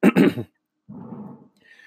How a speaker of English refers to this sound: Now, you have to excuse me for clearing my throat. I've got allergies, seasonal allergies, and they are affecting me heavily today.